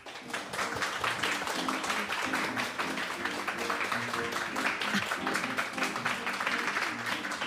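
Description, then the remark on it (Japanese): Steady applause from an audience welcoming a special guest at an event in a brick building originally built as a bank, a dense wash of many hands clapping that holds at an even level for several seconds, with faint voices and a low musical hum beneath. “ではここで、はい、江本一馬さんじゃありませんよスペシャルなゲストをお招きしたいと思います皆さんどうぞ拍手でお迎えください”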